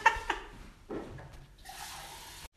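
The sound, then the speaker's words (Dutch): Someone takes a drink of water, with a few short liquid sloshes and sips followed by a longer gurgling pour-like stretch, then a sudden stop. No one speaks. “Even water, want anders...”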